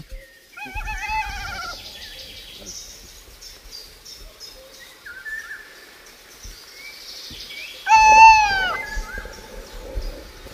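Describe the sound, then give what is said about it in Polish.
An owl gives harsh, nasal, harmonic calls: a rapid series at the start, quieter chirps in between, then a louder, strained burst of rising-and-falling cries near the end. “W każdym bądź razie, jak ja bym był puszczykiem i usłyszał tak silny głos, nie wiem, czy do rana bym miał śmiałość na tym terytorium się odezwać, ale to już jest inna sprawa.”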